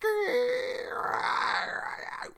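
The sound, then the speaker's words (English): A single voice imitates tree branches scraping across the roof of a truck as it pulls into a parking spot at a house: a drawn-out, raspy, scratchy hiss lasting about two seconds, loud, starting with a brief voiced onset. “you know, with the branches scrape on the fucking roof of the truck.”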